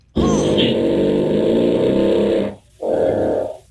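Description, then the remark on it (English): A little kid's loud fart with a rough, revving buzz like a dirt bike engine, holding for over two seconds, then a brief pause and a second shorter sputtering burst. “I present to you the dirt bike fart.”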